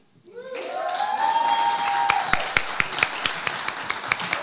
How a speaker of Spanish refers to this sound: Gracias por su caluroso aplauso.